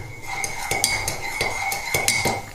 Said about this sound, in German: Dann haben wir hier natürlich die Tasse. Ja. Ich werde die mal doch lieber hier abstellen, ist mit auch sicherer. Bisschen abtrinken. Ja, jetzt hört ihr wieder die normale Tasse.